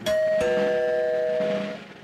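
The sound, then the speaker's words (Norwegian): A two-note electronic chime from a train's public address loudspeaker system: a bright higher tone struck first and a lower tone following, both ringing sustained and clear before fading. “Og plass nummer én på topp ti-listen, ting du ikke vil høre, blir ropt opp på høyttaleranlegget.”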